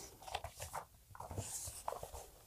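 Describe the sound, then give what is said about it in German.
Paper pages being flipped, with a series of soft, crisp rustles and brushing sounds, irregularly spaced over a couple of seconds, no voices present. “jetzt musste ich mal hier gerade ein bisschen blättern.”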